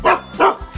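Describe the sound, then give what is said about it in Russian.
A German Shepherd named Altai gives two loud barks in quick succession, a short pause between them, with no voices around. “Молодец, Алтайка И ты поздоровался Алтай – это моя собака, немецкая овчарка”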